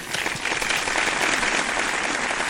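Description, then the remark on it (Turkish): An audience applauds steadily, a dense wash of many hands clapping at an even, loud level for a couple of seconds with no talking over it. “Kocaman alkışlar onlara sanata olan desteklerinden dolayı.”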